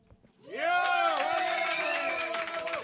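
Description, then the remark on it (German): A live audience bursts into loud applause and cheering for a Volkspop band after a quiet moment, with sustained clapping and high whooping voices that hold steady for a couple of seconds. “Komm jetzt, einmal gescheiter Applaus für so eine geniale Volkspop-Band.”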